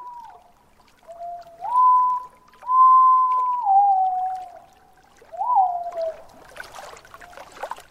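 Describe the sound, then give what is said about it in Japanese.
A white-bellied green pigeon sings a run of long, mellow, fluting whistles that waver and slide up and down, clear, ending in a brief burst of rustling noise. “そんな想像を膨らませながらクリスマスに聞く青バトの声です”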